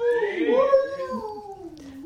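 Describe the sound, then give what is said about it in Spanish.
A person imitates a wolf howl: one sustained, wavering voiced howl that rises and bends in pitch over about two seconds, fairly loud, with no talking over it. “A ver, hazle como el lobo. Ya está, ya hay dos lobos.”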